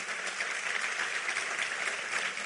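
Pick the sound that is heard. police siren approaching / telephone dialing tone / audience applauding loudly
audience applauding loudly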